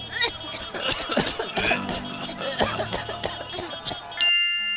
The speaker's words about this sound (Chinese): 我们可不是感冒哦，都是你的乌贼车害我们咳嗽了啦！